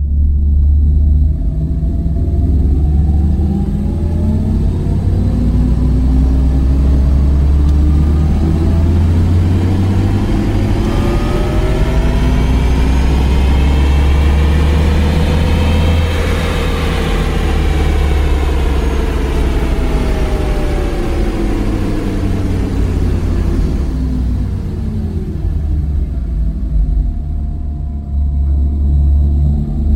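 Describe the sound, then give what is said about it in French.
A designed car engine sound, made from air blown by a fan through a metal pipe and refined on a console and in tests aboard prototypes: a deep, steady rumble layered with harmonic tones that climb in pitch to a peak about halfway through, then glide back down. Loud throughout, with no talking. “après plusieurs modifications apportées au moyen de la console et lors d'essais à bord de prototypes, ils en sont arrivés à la sonorité évocatrice que vous pouvez entendre maintenant.”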